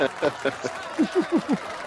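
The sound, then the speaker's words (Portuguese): A burst of cheering welcoming two guests from Halo Project Brasil: a run of short, rhythmic vocal shouts, about eight in quick succession, some high and some lower with falling pitch, over faint background noise. Distinct clapping is hard to pick out. “Hoje nós temos aqui dois convidados ilustres, então suba as palmas aí para a galera do Halo Project Brasil.”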